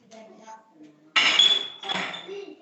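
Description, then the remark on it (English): A Mackmyra whisky bottle knocks against glasses as a dram is poured, giving two bright bursts of clinking with sharp ringing tones, the second slightly softer, after a stretch of quiet murmuring voices. “Okay, I think we'll, we'll pour a dram, don't we?”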